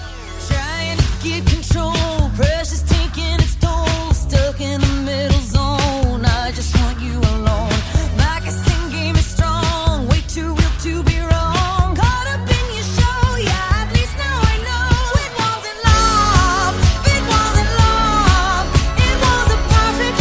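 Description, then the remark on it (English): A newly released pop single: a loud, driving song with a steady pounding beat, bright synths and a sung vocal line, playing continuously, with a brief drop in the low end near the end before the full mix returns. “Yes, that is the new single”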